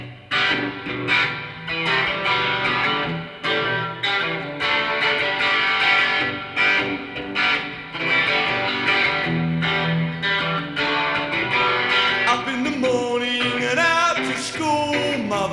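A political post-punk song plays loud and steady, with distorted electric guitar strumming in a driving rhythm over bass and drums, barely letting up for the whole stretch.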